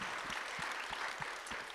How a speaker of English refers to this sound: can we please just give these ladies a big round of applause Jeez. for putting on this amazing event?